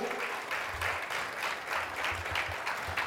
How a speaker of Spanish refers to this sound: ¿Cuántos dicen amén? amén. un aplauso fuerte al Rey de Gloria.